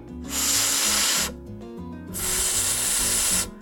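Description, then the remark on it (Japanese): A voice demonstrates the English F sound in a pronunciation lesson contrasting it with V, producing two sustained, breathy "fff" fricatives, each lasting about a second with a short pause between them. The hiss is steady, with faint low tones underneath. “はいでどういう音かっていうとはいあの、こういう音をですね、さっきの F は、”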